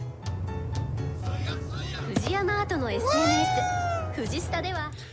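A cat, a yokai running a convenience store in the video game Ghostwire Tokyo, meows a few times in drawn-out, rising and falling cries over a steady low background hum, loud.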